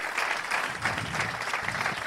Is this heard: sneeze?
no